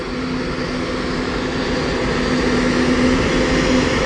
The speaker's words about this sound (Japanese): 今飛行機1台動き出しましたね